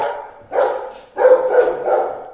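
A dog barks in three or four loud bursts, with short gaps between them and the later barks running together, and no one speaking.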